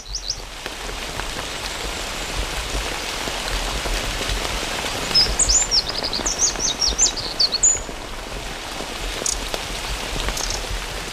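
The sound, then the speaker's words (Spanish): Steady rain patters and hisses continuously and fairly loudly, while a few bird chirps and short trills rise faintly above it in the middle. No one speaks. “En mi casa estaba lloviendo hace un rato cuando vine pues para Es lo que está sonando en unas.”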